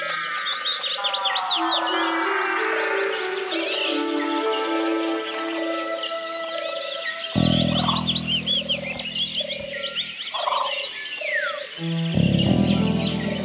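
A dense chorus of many birds singing and calling at once by the water, with overlapping trills, chirps and whistles, some bright, plus a few low croaking calls.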